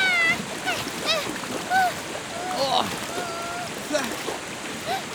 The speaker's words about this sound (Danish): Åh oh, nej, der kommer en kæmpe bølge. Løb!